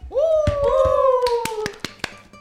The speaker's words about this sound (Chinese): 接下来播放一段他念这段话的录音，大家掌声欢迎。